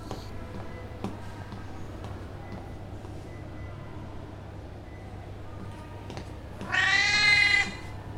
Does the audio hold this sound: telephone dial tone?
no